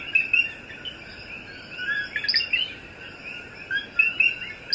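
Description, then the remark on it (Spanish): Coquí frogs chirp in short, high-pitched calls over a steady wash of crickets at dawn in El Yunque National Forest near Río Grande, with a dense chorus of tweets and trills layered together and no voices. “vamos a disfrutar el sonido del coquí que fíjense que también está junto con los grillos en este amanecer tan precioso que todos estamos disfrutando.”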